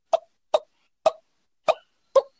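Five sharp, high-pitched turkey alarm putts, spaced evenly about half a second apart in a slow popping rhythm, clear with silence between each cluck; the call turkeys make when alarmed or nervous.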